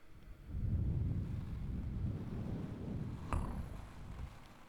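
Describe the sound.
Someone imitates wind with their voice, making a steady, low, breathy whooshing rumble for several seconds, with a brief sharp click partway through and no talking.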